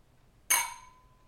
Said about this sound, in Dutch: Laten we nog even een keertje keer. gewoon ouderwets even gewoon klinken. Klinken.